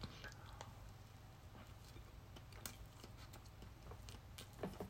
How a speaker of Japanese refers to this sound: では、いただきます。咀嚼音がしますのでご注意ください。